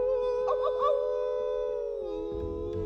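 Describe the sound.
Voices let out a long, sustained howl at the moon, imitating a wolf, holding one steady tone for nearly three seconds before sliding down slightly in pitch near the end, loud.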